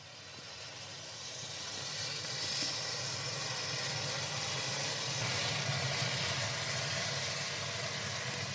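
Gingerbread men burning in a liquid oxygen flame, a steady hissing roar that swells over the first two seconds and then holds, loud and unbroken, with no voices.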